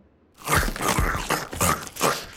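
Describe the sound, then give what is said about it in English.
Loud crunching and gnawing on wood as a termite chews a wooden kitchen chair, with four or five rough bites in quick, uneven succession and no talking. “Are you eating my kitchen chair?”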